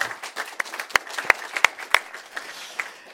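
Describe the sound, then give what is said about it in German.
Audience applause at Oase Church, welcoming viewers watching online, a dense patter of many hands clapping with a few sharp, louder claps standing out, moderately loud and steady for a few seconds with no talking. “wir wollen dich herzlich willkommen heißen und wir geben dir einen Applaus, so laut wir von hier aus können.”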